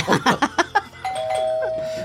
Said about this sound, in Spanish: No, hay de timbres a timbres. Me dijeron que le tocara de timbre.